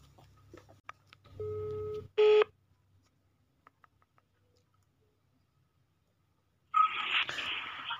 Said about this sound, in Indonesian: oke gue langsung aja telepon orangnya ya